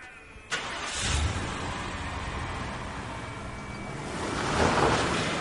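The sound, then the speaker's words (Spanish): A police officer's car engine turns over abruptly and settles into a steady rumble, then swells louder as the car pulls away onto the road, with a broad rushing noise throughout and no voices. “Arranca. Se incorpora a la carretera.”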